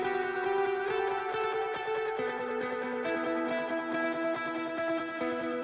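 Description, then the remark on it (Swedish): Atmospheric rock recording by a Ukrainian band with a muddy, murky mix: thick distorted guitars and heavy reverb sustain shifting chords, with drums thudding underneath, loud and continuous, no voices. “Lite mulligt ljud sådär.”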